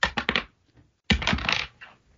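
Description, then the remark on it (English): A coin tossed for heads or tails clatters onto a hard surface with a few quick metallic bounces, goes quiet, then rattles and spins loudly again before tumbling away, falling off and settling. Clear, no voices. “You want, you want heads or tails this week?”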